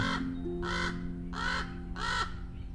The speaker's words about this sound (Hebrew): איפה העורב? העורב שלה. הוא הגיע אליה כשהייתה מכשפה צעירה בת 99. עורב שחור כולו, בלי אף נוצה אפורה אחת. והקרקור שלו